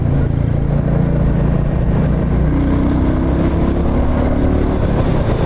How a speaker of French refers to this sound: Royal Enfield a soigné la sonorité de son mono. Hein. Ils en sont très fiers. Et c'est vrai que ça fait partie de l'identité de cette moto.